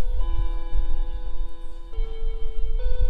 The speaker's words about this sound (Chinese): 这是学校的钟声吧？ 我知道，这是学校的地震演习。 没错。